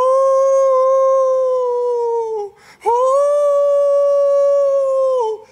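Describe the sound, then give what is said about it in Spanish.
A voice imitates a jackal's or wolf's howl: two long, loud, steady wails separated by a brief pause, each holding a high sustained pitch before dropping away. “Gritaba, pero gritaba como un aullido de chacal, como un aullido de lobo.”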